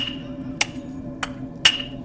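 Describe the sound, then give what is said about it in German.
Three sharp, echoing metallic hammer blows strike at roughly even intervals over a steady low hum, the last one loudest and ringing briefly, booming through the premises. “du hörst ein, ein viel lauteres, hämmerndes Geräusch plötzlich durch die Räumlichkeiten dröhnen.”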